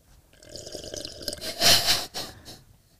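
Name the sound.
slurping a drink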